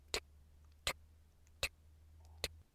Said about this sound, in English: so, just like with the stomach noise, you'd be surprised how loud some watches can be.